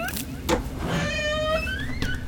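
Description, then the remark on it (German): The door of a witch's house creaks open with a drawn-out, squeaky groan that wavers and rises in pitch for about two seconds, with no one talking. “Ui, das quietscht. Wir sind drinnen im Hexenhaus.”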